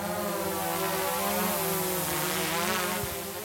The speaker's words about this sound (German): Auf einer Anhöhe an der neuen Schengen-Außengrenze in Kroatien steigt eine Drohne in die Luft. Um das Grenzgebiet zu überwachen, hat die kroatische Polizei über die letzten Jahre technisch aufgerüstet.